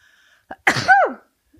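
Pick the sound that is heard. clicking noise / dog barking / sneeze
sneeze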